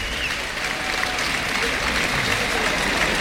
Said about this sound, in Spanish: Bueno, pues hay palmas para Palmitas Que saluda ahora la presidencia.